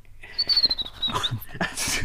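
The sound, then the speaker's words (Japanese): A person imitates a ruddy kingfisher's call, a single high whistled trill that slides steadily downward for about a second, followed by breathy noise. “今回ちょっと練習しましたでも外赤十瓶の鳥みたいの声でしたんですね”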